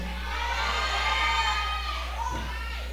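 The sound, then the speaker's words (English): A crowd yells and cheers continuously for a few seconds, a dense wash of many high, excited voices, loud, with a steady low hum underneath. “I need to hear some people yelling from Compton, some people yelling from Temecula.”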